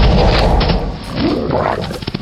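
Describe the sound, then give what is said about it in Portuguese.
A loud, rumbling growl sound effect of a large dire wolf fills the short stretch, deep and gritty with a harsh snarling edge, sustained throughout with no speech over it. “No meio da, da corrida, eu me transformo um lobo”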